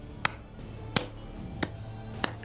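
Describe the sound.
Four sharp, slow hand claps at an even, deliberate pace by a man on the veranda above a bar, each a crisp isolated smack over a low, steady background hum, with no voices.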